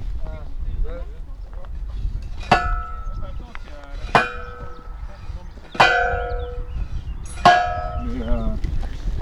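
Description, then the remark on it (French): Fence stakes being hammered into the ground to create a path from the horses' paddock, where their water is, to the meadow: four loud, ringing metallic clangs at a slow, steady pace, each strike sharp and followed by a short resonant hum, over faint wind. “le but euh, de planter les piquets, là, c'est de créer un parcours qui va du paddock des chevaux où euh, il y a leur, euh, eau jusqu'au pré.”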